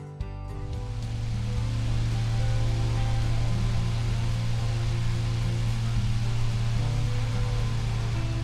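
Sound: electric fan running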